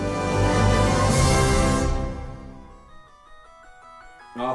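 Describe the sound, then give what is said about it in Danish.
A loud, dense burst of sound fades out, then a phone rings again with a melodic electronic ringtone, playing a short repeating tune of clear beeping notes. “for satan, nu ringer den igen. Hvem fanden er nu det?”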